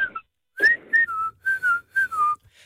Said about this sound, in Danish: så fandt jeg ud af, at hvis jeg stod luften ind af, i stedet for at puste ud af, og så lavede, kunne jeg fløjte. Ja. Det er bare hurtigt og tør for luft, ikke? Det bliver en meget kort fløjten.